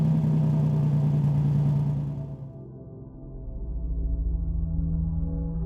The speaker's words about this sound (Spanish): A los pocos minutos escuchamos un carro. Habían llegado mis papás.